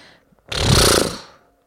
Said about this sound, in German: Als du so in deinem Brownie liegst und entspannst, hörst du plötzlich ein Schnauben